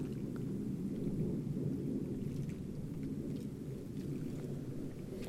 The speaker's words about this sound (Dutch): En als er niks te zien is, zijn er nog altijd die vliegtuigen om je aan te ergeren.